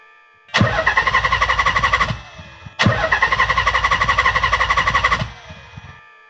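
car starter cranking

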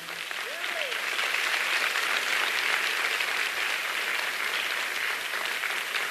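audience applauding

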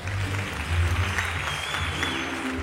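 audience applause

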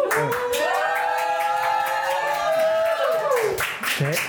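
audience clapping and cheering

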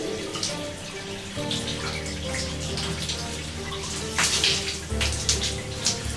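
running shower water

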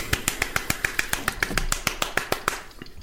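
hand slapping on thigh

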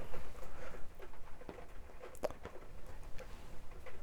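rain pattering

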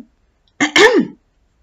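throat clearing

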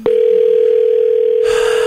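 telephone ringback tone

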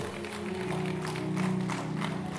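audience clapping

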